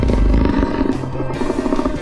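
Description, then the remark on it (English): A deep, rumbling monster-like growl from a single pitch- and time-shifted bottle cap, loud, rolling continuously for about two seconds with gritty, rattling texture and no voices. “And with pitch and time shifting, a single bottle cap can become a barbell, a monster,”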